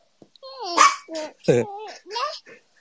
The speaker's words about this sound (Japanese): え、犬はちなみにどういう犬種なんですか犬はね、あの、ポメラニアンという犬種なんですけど。あ、じゃああんまり大きくない感じの。あ、でも結構ね、大きくなっちゃってますね。